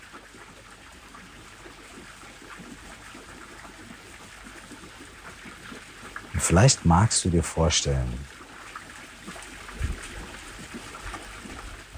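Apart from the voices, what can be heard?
splashing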